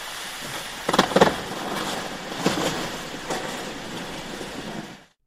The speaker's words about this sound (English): This starts with a hiss, which is the background noise of icebergs in the sea and they're melting, so they're breaking into smaller parts. The small bubbles of air inside create small pops like an ice cube in a glass.